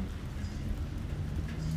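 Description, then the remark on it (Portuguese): Steady rain falls without pause, a soft continuous hiss over a low rumbling bed. The sound stays even and moderately quiet throughout, with no voices. “e principalmente da água que cai.”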